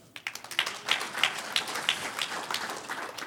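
A crowd applauds steadily for a few seconds for three people called the three musketeers, many hands clapping in a dense patter with a few sharper, rhythmic claps standing out, with no talking.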